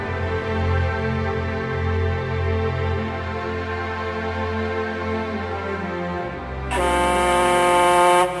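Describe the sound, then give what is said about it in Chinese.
A factory whistle signals the end of the work shift, blowing one long, steady, loud tone rich in overtones for the whole clip, shifting near the end into a brighter, harsher blast. No one speaks. “佩林回到工厂没多久，下班的汽笛声响了起来，他就随着大伙走出工厂的大门。”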